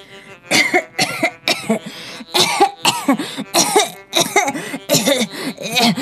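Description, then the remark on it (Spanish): A man coughs over and over in a sustained fit, about ten harsh, raspy bursts coming in quick succession with short gasping gaps between them, loud and with no talking. “empezó a tosar”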